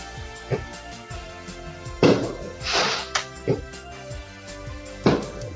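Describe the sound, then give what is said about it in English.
Fireworks set off over a lake go off in a loose, irregular series of muffled booms and pops, five or six in all, with a brief rushing crackle between them. No voices are heard. “Someone is blowing up fireworks over the lake.”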